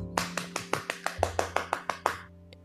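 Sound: group clapping hands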